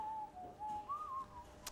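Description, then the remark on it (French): A soft, thin whistle holds a steady mid-high note with small wavering dips and a slight rise before fading, followed by a brief sharp click near the end. No one speaks. “Ce sifflement, toujours.”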